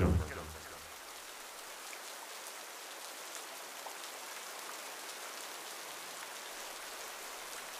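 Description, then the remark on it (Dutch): Steady rain falls continuously, a dense hiss of drops spattering on surfaces, even in loudness with a brief louder burst at the very start. No voices. “En het is de eerste keer dat er water uit de hemel valt.”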